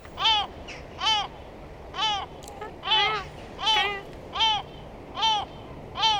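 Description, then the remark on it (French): A single yellow-legged gull gives a series of about eight loud, nasal calls at a steady rhythm, each a harsh wailing note, with a faint background hiss. “Alors, c'est le goéland le coffet, apparemment. Là, il est seul, hein, quand ils sont beaucoup plus.”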